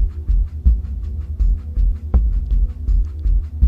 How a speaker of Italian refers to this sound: E mentre osservi, ascolti il tuo respiro puoi notare che se fai attenzione riesci a sentire anche il battito del tuo cuore.